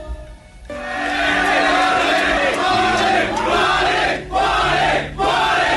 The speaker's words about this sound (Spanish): Hinchas de equipo aclaman a Freddy Gualín.